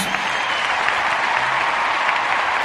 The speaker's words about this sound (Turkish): Öncesinde alkış yapacağım. Dur, bir gaza gelmem lazım.